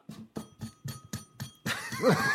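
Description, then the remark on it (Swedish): A metal drain cover in a newly renovated shower rattles in six quick, evenly spaced clacks, then breaks into a louder, continuous clattering rattle with a rising squeak. It is fairly loud, with no talking. “Det här jävla av, den här avloppslocket eller fan är på duschen. Ja. Den hör man så här.”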